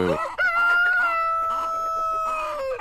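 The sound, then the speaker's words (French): A rooster crows loudly in one long, drawn-out call, while hens cluck softly underneath with a steady, uneven pecking rhythm. “Alors vous les entendez, les grenouilles, les canards, les poules et les coqs qui sont à côté de nous.”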